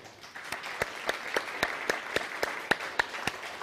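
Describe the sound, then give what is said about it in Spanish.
A group applauds steadily for a few seconds to welcome the start of the holiday Hoshana Rabbah, a dense wash of clapping with sharper individual claps standing out in a fairly regular beat; no one speaks over it. “En el día de Oshana Rabá, que ya es, denle un fuerte aplauso a Oshana Rabá, ya entró.”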